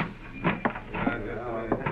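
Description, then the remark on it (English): A hotel lobby door is opened with a few short latch clicks and knocks over a steady murmur of background noise. “Well, here's the lobby door. Go ahead, boss.”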